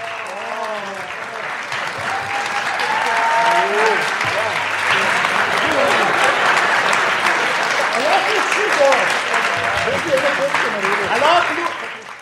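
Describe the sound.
Sustained applause from a sizable audience in a hall for about twelve seconds, steady and dense, with faint voices and cheers mixed into the clapping.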